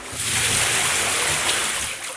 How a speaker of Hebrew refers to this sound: אליהו לא הסתפק סתם בהבערת המזבח, הוא חפר תעלה מסביב למזבח, שפך מים על המזבח ובתוך התעלה.